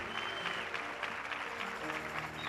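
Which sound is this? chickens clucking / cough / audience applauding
audience applauding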